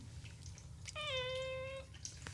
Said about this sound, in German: Magst du mal Hallo sagen, sonst glaubt mir wieder keiner, dass ich wirklich hier bin. Ist das dein Miauen?